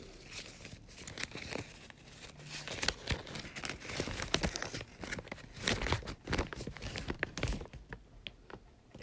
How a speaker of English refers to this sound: And there's a piece of paper. I'm gonna open it.